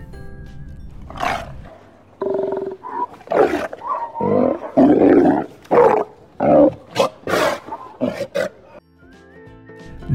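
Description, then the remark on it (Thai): Sea lion calls: a series of loud, throaty barks and roars in rapid irregular bursts, with a faint musical tone heard at the very start and end. “น้องๆครับ แขกรับเชิญของเราในวันนี้วันก็คือ สิงโตทะเลนั่นเองครับ น้องๆครับ เจ้าสิงโตทะเลเนี่ยมันบอกนะครับว่า ถึงเสียงและหน้าตามันจะละไม้คล้ายกับแมวน้ำแต่ถ้าทุกคนเนี่ยมาเจอมันแล้วต้องแยกให้ออกนะครับว่า ตัวไหนแมวน้ำตัวไหนสิงโตทะเลครับ”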